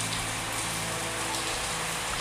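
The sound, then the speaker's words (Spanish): Steady rain falls in a constant, even hiss of drops with no pauses, moderately loud, with a faint low hum underneath and no voices. “Entonces te voy a dar un tiempo para que el sonido de esta lluvia que está acá puedas ordenar tu espacio, tu tranquilidad”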